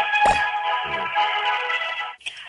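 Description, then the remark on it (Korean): A telephone ringback tone plays steadily on the line for about two seconds as a call is placed to newly elected party leader Lee Hye-won, a bright electronic sound at moderate volume, then cuts off abruptly. A couple of faint low thumps sound early on; no one speaks. “한번 전화 연결해 보도록 하겠습니다.”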